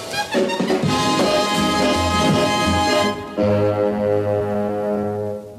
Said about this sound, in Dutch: U hoort het goed. Vorstelijke muziek.